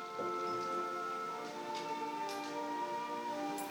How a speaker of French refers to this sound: Est-ce l'image qui disparaît, gommée par les gouttes de pluie qui dévalent le verre